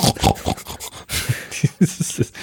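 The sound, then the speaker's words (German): A dog wheezes and snorts, a run of rough, raspy breaths and short nasal snorts coming in quick irregular bursts, with no one speaking. “Vor, allem nach, vor allem dann auch noch mit Ton, weil ja, ja, es ist einfach klasse, wenn du diesen röchelnden”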